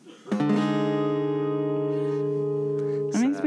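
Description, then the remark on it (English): A diminished chord rings out on an instrument, held steady and loud for about three seconds with a smooth, sustained, organ-like tone, bracketed by brief noises at the start and end. “There's this diminished chord that doesn't make any sense to me.”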